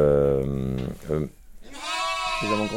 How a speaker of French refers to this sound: on peut imaginer qu'un auditeur cherche dans la mélodie émise par les différents moutons